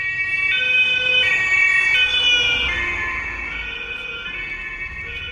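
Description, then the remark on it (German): An emergency vehicle siren wails loudly in alternating high and low tones, stepping back and forth every half second or so, with road traffic rumbling underneath and the siren fading slightly toward the end. “Und weil ich natürlich auch immer emotional damit verbunden bin, ist es gerade irgendein Notfall.”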